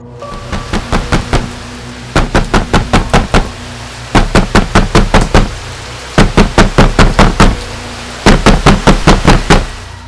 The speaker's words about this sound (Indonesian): Malam itu saat hujan deras, menurut kesaksian mereka bertiga, saat sedang bertugas jaga, semua pintu di gedung utama UGD digedor-gedor dari luar. Bukan ketukan biasa seperti layaknya orang, tapi gedoran keras yang bikin kaget